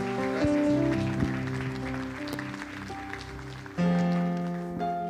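crowd, audience applause

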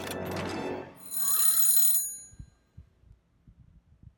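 household object, alarm clock bell ringing

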